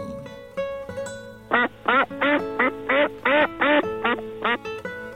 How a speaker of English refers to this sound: 哇，是一只黄色的鸭子哎 ！